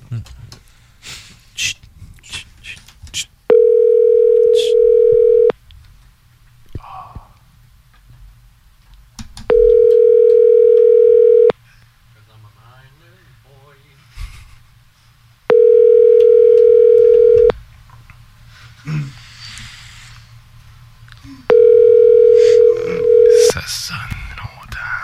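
A telephone ringback tone sounds four times before the call goes to voicemail, each steady ring lasting about two seconds with roughly four-second gaps. The rings are loud and clear, with faint background noise and breathing between them.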